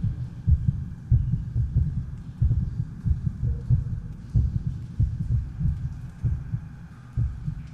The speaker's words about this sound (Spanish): ¿Escuchan eso? ¿Qué es? Son los latidos de Minotauro dentro del vientre de su madre, la reina Pasifae. Son los latidos del laberinto viviente.